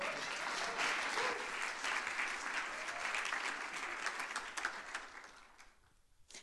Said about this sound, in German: Ja, es gibt einen riesen Applaus